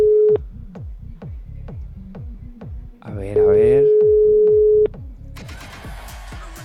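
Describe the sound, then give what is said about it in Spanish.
A phone line sounds a steady electronic tone as a number is redialed to call someone back, then a longer ringing tone mid-clip, with rapid clicks and brief speech around it, ending in a burst of noisy chatter. “¿Le damos a rellamada? ¿Puede super? Lo llamamos de vuelta.”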